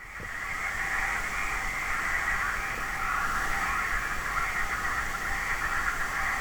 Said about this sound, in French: J'ai donc décidé pour parer à ça de te faire écouter les vaches, non les grenouilles, de la Dordogne.